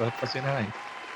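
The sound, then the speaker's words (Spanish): A brief sound-effect burst: a few quick honking horn toots, the last one longer and bending in pitch, over a wash of clapping that keeps going softly after the horns stop. “Así que tiene aquí un aplauso, unas cornetitas, todo aquí de Fantasy de en verdad.”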